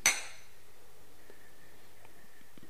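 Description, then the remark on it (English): A single sharp clink of glasses of a common industrial beer touching in a toast, ringing briefly before fading into quiet with a few faint small knocks afterward. “So first, cheers. Cheers.”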